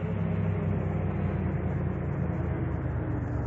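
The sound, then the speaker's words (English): A car engine idles with a steady, low rumble after the car pulls over, holding an even loudness throughout with no voices over it. “I'd better pull over.”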